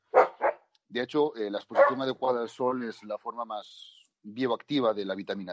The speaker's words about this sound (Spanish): Lo siento por el perro, no sé si lo escucháis, pero... Sí, sí se escucha, pero bueno.